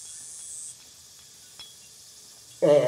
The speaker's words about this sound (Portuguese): mas o som desse gás ele é mixado de uma forma que ele vai aumentando e diminuindo, ele vai seguindo a montagem da sequência.